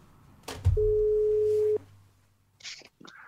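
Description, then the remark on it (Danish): A single steady electronic ringback tone of an outgoing phone call to a mink farmer sounds for about a second, loud and clear, followed by a brief bit of faint line noise and a short burst of voice. “han har, øh, han har ringet rundt til nogle af de her øh, minkavler for at høre, hvor mange penge de vil, de vil tage i timen for at vedligeholde deres, øh, deres minkfarme.”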